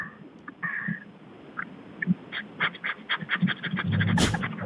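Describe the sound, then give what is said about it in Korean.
A voice imitates a pressure rice cooker: quick rhythmic puffing pulses that build steadily, then a loud burst of hissing like escaping steam. “어떤 어떤 밥솥인가 뭐 예를 들어서 이제 압력 밥솥이죠?”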